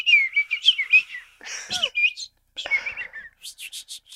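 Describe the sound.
A person whistles a rapid, bird-like warbling call with trills and chirps, then a few short sharp tweets at the end, fairly loud with no talking.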